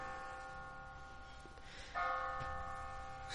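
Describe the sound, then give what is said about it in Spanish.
A phone's Bible app notification bell chime rings with sustained, shimmering tones, then a fresh strike about halfway through renews the ringing. Fairly quiet and alone, with no voices. “Solo un viejito tiene una campana de... La aplicación de la Biblia.”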